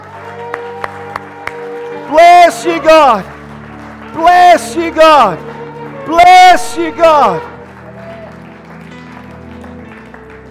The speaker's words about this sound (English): Right now, church, can we give him a, a, a clap offering of praise, a clap offering of victory?